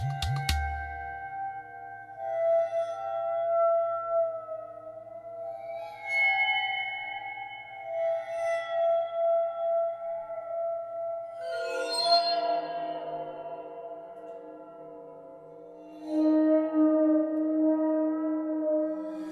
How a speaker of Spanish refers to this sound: Así suena el waterphone o aguáfono al contacto con un arco de violín. Ese instrumento, dotado de barras de bronce y un cuello metálico que se carga con agua, está inspirado en los tambores de agua tibetanos.